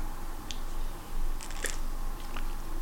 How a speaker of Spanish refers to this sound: Eso sí, para comenzar la semana informativa necesito un buen café amargo, así que voy con este sorbito sin azúcar.